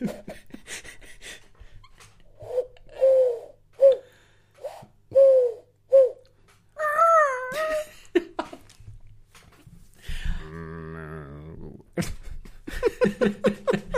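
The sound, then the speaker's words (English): A voice imitates a wheezy, asthmatic pigeon, giving a run of short, breathy coos in a steady rhythm, fairly loud, followed by more strained vocal noises. “and an asthmatic pigeon.”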